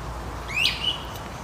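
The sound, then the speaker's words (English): A single short bird call rings out clearly in a yard, a rising chirp followed by a brief second note, over steady low outdoor background noise with no one speaking. “Not that I know all the bird sounds, because I definitely do not.”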